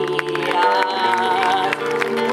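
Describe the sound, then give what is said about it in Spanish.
An audience claps steadily and densely after a payadores' contrapunto performed in honor of San Clemente, the applause layered over sustained tonal music that keeps going underneath at an even, fairly loud level. “Fuerte el aplauso, señoras y señores.”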